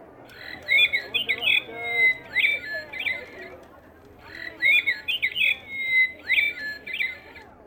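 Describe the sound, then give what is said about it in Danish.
A mechanical toy bird sings a short, chirping, warbling phrase, pauses, then repeats the exact same tune with identical rhythm, bright over a faint low background. “Stolt holdt han den kunstige fugl frem foran sig, trykkede på knappen, og fuglen begyndte at synge.”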